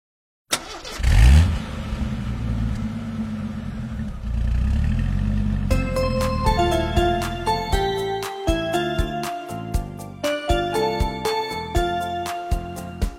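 A bus engine starts up and accelerates with a rising, rumbling roar for several seconds, then a bright, bouncy melody of distinct plucked notes takes over. No one speaks.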